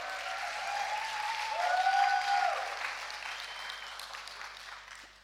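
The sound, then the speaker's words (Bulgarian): A large church audience applauds for a living God of hope in a sustained wash of clapping that swells in the middle and then gradually thins, with faint sustained tones beneath and no clear speech. “Може да ръкопляскаме, ако вярваме в един жив Бог, който е Бог на надеждата.”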